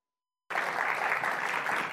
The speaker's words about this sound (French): À leur arrivée, ils sont applaudis comme des héros.